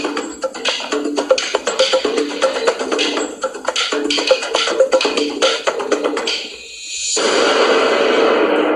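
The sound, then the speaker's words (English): Static from a TV that has been left on hisses steadily and fairly loudly, crackly and textured at first, briefly dipping quieter before settling into an even, unbroken wash of white noise. No one speaks. “All right, let's get the lights out white noise the TV is going on.”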